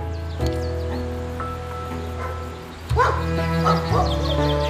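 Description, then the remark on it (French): Hunting dogs bark outdoors, a few loud, sharp barks at irregular intervals, some overlapping with whines, over a steady low rumble and faint rustling. No one speaks. “Sa passion La chasse. Il y passait tous ses week-ends avec ses copains et ses chiens.”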